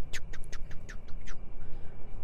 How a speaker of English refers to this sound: Listen to the cricket